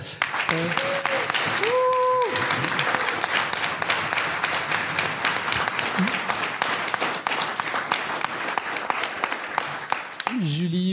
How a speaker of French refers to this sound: Là, je voudrais vraiment une, enfin, un, un tonnerre d'applaudissements.